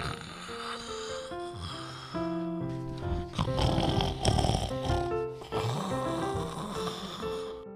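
A man sleeping soundly on the ground under a blanket beside a campfire snores loudly, rasping, in two long drawn-out breaths, each building to a noisy rumble, over a steady bed of sustained melodic tones. No one speaks.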